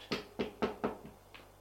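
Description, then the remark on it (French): Four sharp knocks on a door in quick, slightly uneven rhythm, followed by two fainter taps; no voices, just the hard wooden raps standing out clearly. “S'il frappe à la porte.”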